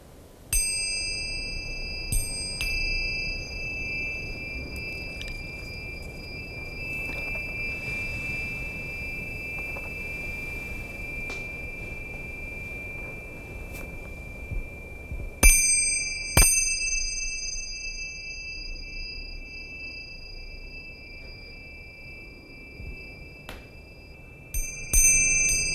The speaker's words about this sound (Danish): Nu, nu står du med et par andre klokker. Ja, de er så endnu ældre. Så vi kan godt prøve at lige høre lidt af dem. De, de, de er meget anderledes. De er mere sådan sølv og guld.